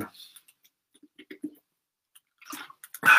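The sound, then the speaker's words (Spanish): Someone takes a sip of a drink: faint lip clicks and small gulping swallows, then a brief breathy exhale or slurp at the end, with no talking. “déjame dar un traguito aquí.”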